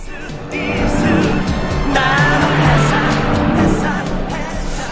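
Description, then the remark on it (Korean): A car next to the listener's car speeds up and roars past with a loud surge of engine and tire noise, while music plays from it, its melody audible under the rushing vehicle sound. “자, 옆에 차가 지나갑니다. 차 소리와 함께 음악 소리 들려요.”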